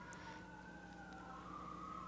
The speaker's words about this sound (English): Wow, do you guys hear the sirens in the background? Sorry about that as I'm talking about stress. Every time I do that on our podcast, there's sirens outside. Have you noticed?